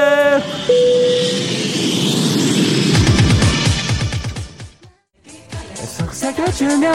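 An airplane takeoff sound effect: a short tonal chime, then a loud, broad jet-engine roar that swells for a couple of seconds before giving way to rhythmic pulsing sounds.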